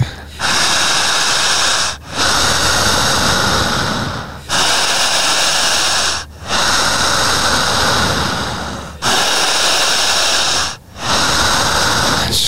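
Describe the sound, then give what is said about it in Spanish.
Heavy, forceful deep breathing during a guided breathing exercise, a loud rushing stream of air broken by brief pauses about every two seconds, repeating steadily with no talking. “Fuerte, no me corte la respiración”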